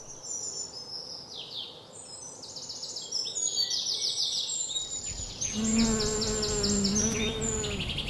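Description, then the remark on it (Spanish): Bees hum steadily while pollinating and circling yellow flowers, a soft continuous buzz that swells and wavers, with bright birdsong chirping in the background. “Un suave murmullo de abejas polinizando y rodeando todas estas flores amarillas.”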